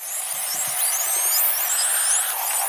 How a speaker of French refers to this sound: Ah. c'est un piège. Attention, ça n'est pas un insecte. Euh, une fraiseuse de dentiste. Une fraise de dentiste.